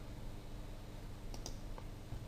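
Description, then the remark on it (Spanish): Two quick, crisp computer mouse clicks close together, followed by a fainter third click, as someone clicks on frame 1 in animation software, right-clicks and chooses to create a shape tween, over a low steady background hum with no talking. “Bien, pinchamos en el fotograma número 1 pinchamos botón de la derecha y le decimos crear interpolación de forma.”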